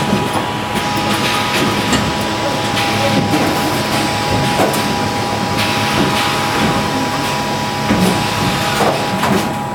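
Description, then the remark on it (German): Loud, continuous mechanical roar of newspaper printing presses running at the Druckhaus in Spandau, Berlin, where the Tagesspiegel is printed, with a dense steady rumble, rapid rhythmic clatter and a few sustained hums, no talking. “Und zwar bin ich heute im Druckhaus in Spandau. Hier wird der Tagesspiegel gedruckt. Wenn man da reingeht, ist es richtig, richtig laut.”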